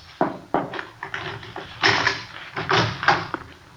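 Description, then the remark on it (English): A key rattles and clicks in the lock of a house's back door a couple of times, then the door is pulled open with a burst of scraping and rustling movement, without any talking. “This it? It's locked. Key's in the door.”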